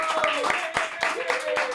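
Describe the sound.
Dense, steady applause with sharp claps scattered throughout, mixed with voices or cheering that add a few sustained tones on top. Loud and continuous for its whole short length.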